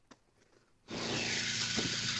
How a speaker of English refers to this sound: And I've got a generator going.